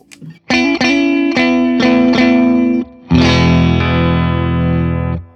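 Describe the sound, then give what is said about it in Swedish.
Electric guitar played through a delay effects pedal switched on, for a lead part, with a gritty, distorted tone: several quick picked notes build into a held chord, then a brief dip before a loud sustained chord rings out. No talking. “Skane så låter det mer åt det här hållet då på lead-delen.”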